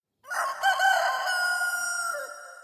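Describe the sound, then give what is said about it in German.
A rooster crows once, a loud, drawn-out cock-a-doodle-doo lasting about two seconds and tapering off at the end, with no other sounds around it. “Das war eindeutig das Krähen eines Hahns.”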